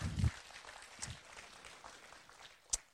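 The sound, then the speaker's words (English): Audience applause: a steady, dense patter of many hands clapping, fairly soft, with a few sharper claps standing out. No one speaks. “And so, again, if you guys will just give her a round of applause.”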